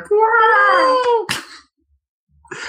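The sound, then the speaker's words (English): A person imitates a peacock call with one loud, drawn-out nasal wail lasting about a second, then a short breathy burst, a pause of silence, and faint noise at the end. “I guess that's just because I associate that noise with peacocks.”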